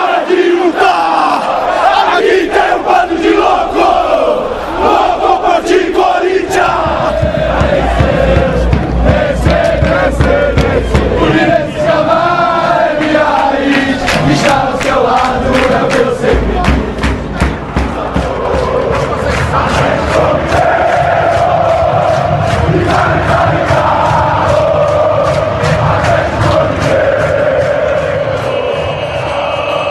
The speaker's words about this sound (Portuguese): Porém, inegavelmente, quando entoados no tom certo, o grito das torcidas fica sensacional.